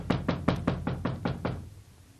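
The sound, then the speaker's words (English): A quick run of seven firm knocks on a door, evenly spaced in a steady rhythm, fairly loud, then the sound stops and fades to quiet. “Ah, come on, Charlie. What do I have to do? Break this door in?”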